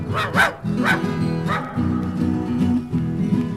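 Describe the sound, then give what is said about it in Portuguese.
A dog barks sharply about four times in quick, uneven bursts over a steady droning musical background. “Sai cachorro.”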